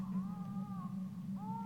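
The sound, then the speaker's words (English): Faint, drawn-out wailing cries like a creature weeping, from about a hundred yards away, rising and falling in long wavering tones, with a second cry starting near the end, all over a steady low hum. “I don't know if you guys can hear that, but it sounds like crying, doesn't it”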